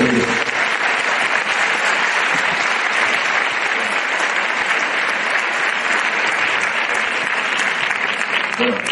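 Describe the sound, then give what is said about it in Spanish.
Sustained audience applause welcoming a guest speaker known from television, a dense wash of many hands clapping at steady loudness for the whole stretch, with no break or fade. “y yo le quiero dar las gracias y recibirlo con un fuerte aplauso por estar aquí con nosotros”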